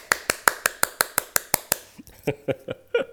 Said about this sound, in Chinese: 给自己掌声鼓励一下。